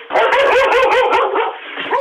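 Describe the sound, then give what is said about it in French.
A dog barks and yips in a rapid, continuous run, fairly loud, with a whiny edge to some calls and no one talking over it. “J'entends le chien derrière et j'entends votre époux qui dit à propos du cinéma merdique.”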